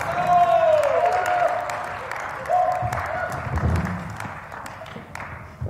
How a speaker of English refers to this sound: Give them a big cheer. Come and join me, guys.